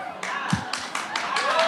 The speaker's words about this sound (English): what you're hearing right now is the crowd losing their mind